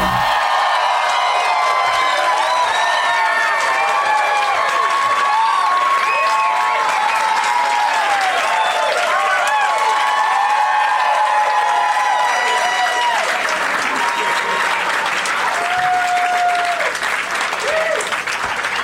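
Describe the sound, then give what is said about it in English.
A live audience claps and cheers loudly and continuously, with whoops and whistles rising above dense, sustained applause throughout. “wow, this crowd is really fucking up its cues.”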